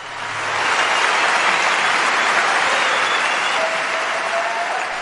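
A crowd applauds warmly, the clapping swelling within the first second into a dense, steady roar that holds strong for several seconds, with no voices over it, welcoming a multidisciplinary artist onto the stage at the Olympiades culturelles 2022.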